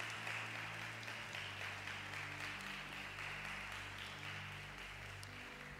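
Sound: audience applause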